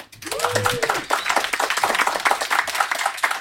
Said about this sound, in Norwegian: Vi har vært veldig heldige og fått to gjester i dag. Audun Lysbakken fra Sosialistisk Venstreparti og Knut Arild Hareide fra Kristelig Folkeparti. Gjerne klappe litt for dem.